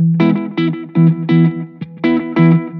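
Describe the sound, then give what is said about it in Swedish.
An electric guitar played through a modded Professor Deep Blue Delay pedal set to a short slapback plays a short run of loud, rhythmic picked notes, each followed by a quick slapback echo that gives a slight reverb-like tail. No one speaks. “Nu har jag ställt det som ett litet slapback som jag gillar. Det är nästan som ett reverb.”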